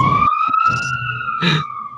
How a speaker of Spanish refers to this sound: Deja que pase la ambulancia.